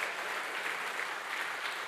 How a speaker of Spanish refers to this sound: Dele fuerte ese aplauso al Señor. Fuerte ese aplauso al Rey de Reyes, al Señor de Señores.